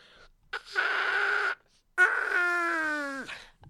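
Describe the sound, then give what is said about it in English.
Someone buzzes through a cupped hand used as a mouthpiece, imitating a trumpet: two loud, raspy sustained notes, the second wavering and then sliding down in pitch before cutting off. No one speaks. “Well, I was trying to use my hand as a mouthpiece.”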